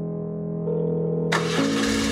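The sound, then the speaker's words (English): A motorcycle engine idles with a steady low hum, then suddenly roars louder and rougher as it revs up, with no voices, as the rider heads out of a base in cold wind. “I end up heading to Integrity on the back of Omar's motorcycle”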